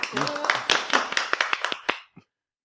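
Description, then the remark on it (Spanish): A small group applauds in a studio for the Hubble Space Telescope's 25th anniversary: a burst of brisk, overlapping hand claps lasting about two seconds before trailing off, with a brief voice heard underneath at the start. “Damos un aplauso.”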